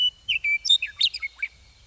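Bright, rapid bird song in a ponderosa pine savanna fills the air: a quick series of high chirps and whistled notes tumbling over about a second and a half, clear, with a faint low outdoor rumble beneath.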